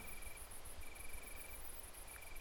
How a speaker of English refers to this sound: The sound of crickets and the rustle of wind in the leaves made a soothing sound.